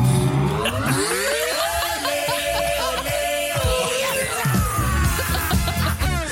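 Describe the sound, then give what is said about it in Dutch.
A loud alarm that goes off whenever someone subscribes to a YouTube channel blares for several seconds, a dense, buzzy wall of layered tones whose pitch shifts and slides, sounding continuously with no talking over it. “Als je net inschakelt, ehm, iedere keer als iemand abonneert op mijn YouTube-kanaal... gaat er een alarm af.”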